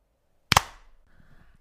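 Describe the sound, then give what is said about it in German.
A single loud, sharp hand clap, made to sync audio for editing, with a slightly doubled attack as if two claps landed almost together, breaking a brief silence and then giving way to faint low background noise. “Alles aber gut, du kannst besser schneiden, wenn wir ja. jetzt nochmal klatschen.”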